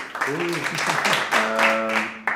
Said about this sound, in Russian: Сейчас у нас здесь оператор э, после монтажа ставит аплодисменты.